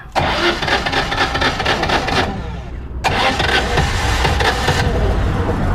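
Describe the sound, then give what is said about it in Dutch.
A 1980 Citroën 2CV, painted light yellow and bright green with an extra headlamp on the roof and an upturned exhaust pipe, cranks and catches, running loud with a rough, buzzing idle, briefly dropping off before roaring back and revving steadily. “In zijn eigen geit, een deurcheveau uit 1980.”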